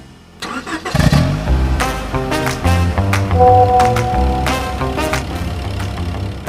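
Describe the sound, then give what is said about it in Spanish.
A car engine catches and rumbles steadily as the vehicle drives along a highway, with a continuous low drone and periodic surges, no voices present. “Aquí voy en carretera ya”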